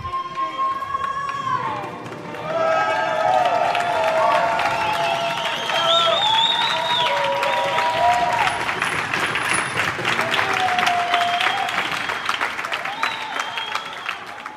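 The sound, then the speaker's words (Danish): A whole street in Italy bursts into sustained applause after a particularly beautiful song during the coronavirus crisis. Dense clapping swells after a couple of seconds and stays loud, with cheers, shouts and high whistles rising above the crowd. “I fortjener lidt klapsalver, som dem I hører her, da en helt gade i Italien brød ud i klapsalver efter en særlig smuk sang.”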